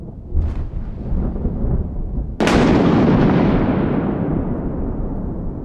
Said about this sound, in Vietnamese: Tiếng sấm nổ làm cho sông trai giật mình tỉnh dậy